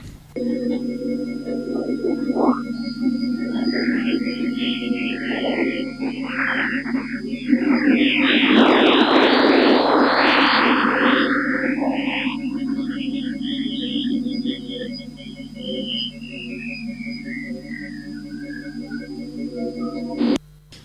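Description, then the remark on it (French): Sonified radio emission storm from Jupiter: a few scattered chirps, then a dense, loud burst of sweeping whistles and crackles over a steady electronic hum, ending in a long tone gliding downward. “c'est qu'au cours du temps, on a quelques précurseurs, puis un espèce de très gros orage d'émissions radio de Jupiter, et puis une petite queue qui, dont la fréquence descend et donc qui va des aigus vers les graves ensuite.”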